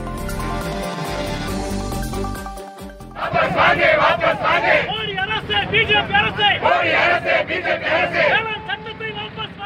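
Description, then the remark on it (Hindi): After a few seconds of steady tonal music, a loud crowd of farmers protesting on the roads against a government decision on the farm bills erupts into shouting, many overlapping voices yelling and chanting in rising, uneven bursts that continue to the end. “लेकिन सरकार के एक फैसले के बाद सड़कों पर जो मंजर दिखा उसकी झलक आपको दिखा नहीं सकती पर सुना जरूर सकती हूँ”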